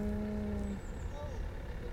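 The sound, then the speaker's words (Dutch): A car passes, its steady engine hum dropping in pitch partway through over a continuous low road rumble, loud for the full two seconds. “Komt de auto, Komt Wacht wel even tot hij bij is.”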